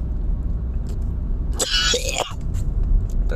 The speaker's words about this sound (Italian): Questa tosse non credo che sia dovuta al reflusso, eh. sono rimasulli. Rimasulli dei polmoni, se qualcosa.